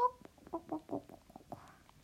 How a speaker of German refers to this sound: Oh, zwei Hühner. Zwei Hühner.